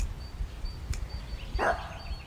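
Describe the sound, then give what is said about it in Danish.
A single short dog bark rings out, fairly quiet, after a brief sharp click, against a low background rumble with no one speaking. “Du skal ikke stå og gø.”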